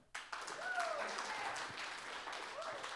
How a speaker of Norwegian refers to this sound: Applaus